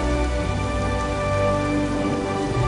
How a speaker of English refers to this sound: It's rain. It's okay, it's fine. Nothing to be scared of. Here, I'll show you. It's just rain, it's okay.